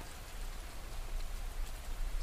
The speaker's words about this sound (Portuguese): Aqui, quando a chuva cai, não cai de mentirinha. Preto, vermelho, empoeirado. O céu foi ficando carregado. O vento derrubava tudo e enormes pingos de chuva começavam a cair.